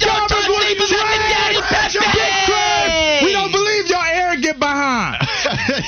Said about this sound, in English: we need a war cry. We need a war cry on this Wednesday. One, two, three. Hey, yeah,